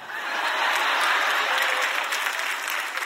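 Steady audience applause for a man as he comes up, a dense wash of many hands clapping at a fairly loud, even level for the whole stretch, with no voices standing out.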